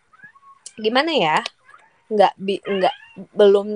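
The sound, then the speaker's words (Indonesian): A drawn-out pet cat meow with a wavering, rising-and-falling pitch sounds once near the start, followed by a person talking. “mohon maaf kucing aku lagi ngeong-ngeong jadi serak banget nih sumpah sorry sorry”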